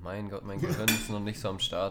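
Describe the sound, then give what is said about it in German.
Cutlery and dishes clink in a kitchen early in the morning as someone makes a second slice of bread with hummus, a few bright metallic taps and rattles heard beneath a person talking continuously. “Ihr hört ein bisschen klimpern im Hintergrund.”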